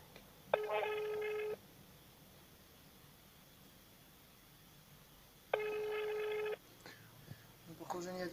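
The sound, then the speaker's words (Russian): Two steady telephone ringing tones, each lasting about a second and spaced several seconds apart, sound over a quiet line during a call to the Altai regional court, with faint voices stirring in the background near the end. “Давай еще номер телефона один. Ну подожди, сейчас кончится.”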